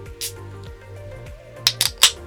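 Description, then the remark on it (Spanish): A beer bottle being opened: a soft scrape, then a quick cluster of sharp metallic clicks and a brief fizzy hiss as the cap comes off, over a low steady hum. “Yo me voy a levantar otra, uh, me voy a destapar otra chelita que ya”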